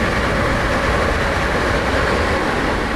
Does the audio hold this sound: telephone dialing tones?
no